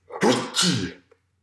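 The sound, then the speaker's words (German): A single loud sneeze from a person with a head cold, a sharp double burst of breathy noise, ending abruptly followed by a faint click in otherwise quiet surroundings. “Gesundheit.”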